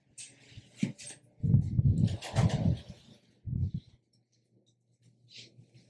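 A window is slid shut, with a few scraping, rumbling pushes and a dull knock as it settles, followed by quiet handling sounds. No one speaks.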